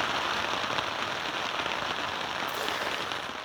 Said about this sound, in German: Wasser gibt's aber nicht nur äh, quasi vor dem Zelt, sondern manchmal auch, und das ist das zweite Geräusch, von oben. Wie haltet ihr euch denn bei Laune, wenn ihr in der Natur unterwegs seid und es schifft, so wie wir das jetzt gerade hören?